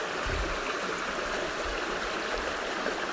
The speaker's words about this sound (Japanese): それでは自然の清らかな水のせせらぎの音そしてご自分の呼吸をお楽しみください。